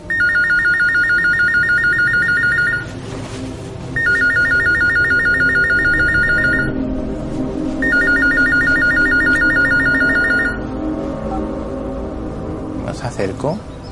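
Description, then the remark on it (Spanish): A mobile phone with a screen rings oddly in three long, evenly spaced bursts, loud, with a steady electronic trill, over a low background rumble and a brief rising squeal at the end; no caller information shows on its screen. “Pues bueno, esta empezó a sonar de forma extraña, no se veía ninguna información en la pantalla.”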